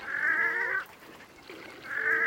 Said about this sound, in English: I couldn't hear it clearly because the wood ducks were carrying on.